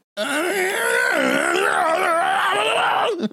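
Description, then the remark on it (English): A person vocally imitates a grinding old freight elevator, holding a loud, strained, wavering groan for about three seconds with a harsh, buzzing edge before cutting off abruptly. “To get to the basement, you have to use an old freight elevator that sounds like a chainsaw trying to mate with a blender.”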